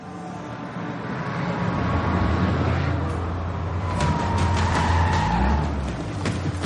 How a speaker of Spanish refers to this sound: Aparecen coches blindados de los Geo, de los que bajan agentes armados y preparados con todo el material.